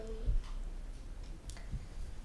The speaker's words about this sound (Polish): Jak tak pukasz, to, to też na maksa słychać.